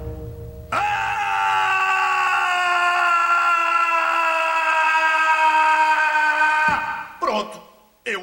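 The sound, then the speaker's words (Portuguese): A single loud, drawn-out scream, launched from the mouth as a sonic wave, held steadily for about six seconds, its pitch sagging slightly before it cuts off, followed by a couple of short vocal bursts. “e ela fica super gostando desse grito.”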